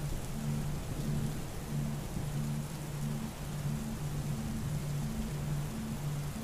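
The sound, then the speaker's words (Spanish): Steady, heavy thunderstorm rain pours down in a dense, even hiss with no voices, while a faint, low pulsing tone repeats beneath it. “Sus truenos nos sacan del silencio.”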